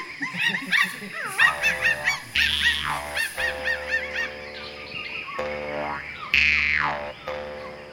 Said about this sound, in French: Voilà pour cet extrait euh, de l'incroyable expédition de Corentin Tréguier au Congo, un extrait où euh, on a l'impression de voir les singes